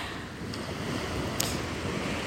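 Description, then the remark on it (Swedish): Waves wash steadily onto an empty beach in a continuous, even roar, with a couple of faint clicks over the surf and no voices. “Säger jag som sitter på en strand för mig själv, det är liksom ingen här.”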